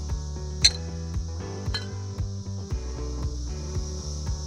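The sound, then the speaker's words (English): Glasses clink together in a toast, one bright ringing chime followed by a softer second tap, set against a steady low musical hum. “And the only other thing we have to say to that is. Cheers. Cheers.”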